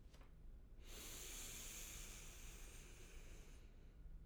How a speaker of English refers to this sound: Before we begin, if everyone could just go ahead, slow down and take a nice deep breath in through your nose. Breathing deep.